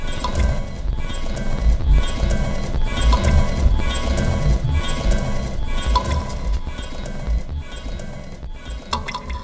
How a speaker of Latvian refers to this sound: Un tagad man ļoti grūtā vienkārši izstāstīt, bet tā skaņa šāda. Ja šo katru skaņu sasinhronizē ar smagu zābaku soļiem, tad nāk cilvēks bruņās. Bruņinieks viduslaikā.